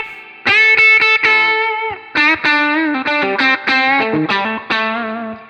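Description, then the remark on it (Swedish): Electric guitar played through distortion to demonstrate its pickups, a short melodic phrase of sustained single notes with some quick repeated attacks, loud and harmonically rich with a gritty edge. No talking. “Och alltså den kommer fram mer med, med dist, det är ja.”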